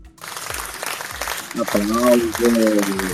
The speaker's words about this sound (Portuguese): Mas temos um novo orador, uma salva de palmas.